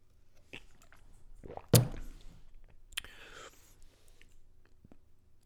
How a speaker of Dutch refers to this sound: ja, even een slokje water.